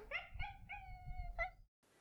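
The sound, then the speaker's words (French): A person mimics a dog's howl, drawing out a few wavering, whining howls over about a second and a half, fairly loud, then it cuts to quiet. “On fait la sirène, on fait l'enfant, on fait le chien.”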